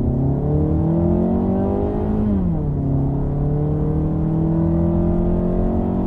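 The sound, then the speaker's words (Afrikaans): The 115 kW 2-litre engine of a CX3 crossover drones loudly and steadily, its pitch climbing slightly before dipping sharply partway through, as if shifting gear, then holding an even, strained hum under acceleration. No one speaks. “Die masjien raak egter leidrigtig wanneer jy vet gee.”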